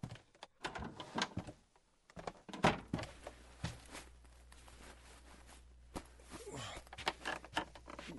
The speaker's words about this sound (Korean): 그렇게 한참을 고민하고 있는데 다시 현관문이 여닫히는 소리가 들렸습니다. 그리고는 살금살금 계단을 올라오는 발소리가 났습니다.